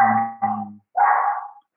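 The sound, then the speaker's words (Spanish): A dog barks loudly: two quick barks in a row, then a longer, drawn-out one, with no one talking. “Si, larga muy fuerte el perro, avísame si se, se tapa”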